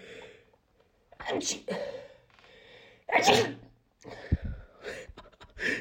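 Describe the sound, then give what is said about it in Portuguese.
A loud sneeze bursts out, preceded by sharp intakes of breath and followed by another short sneeze-like burst and some breathy sounds. No words are spoken. “Não sei como é que ficou o espirro na gravação.”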